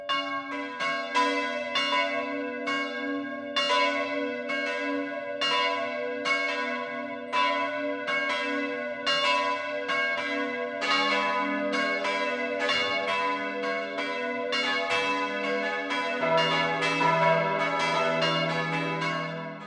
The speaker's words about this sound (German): Es ist 12 Uhr. Das Mittagsläuten kommt heute aus Autenried in Schwaben.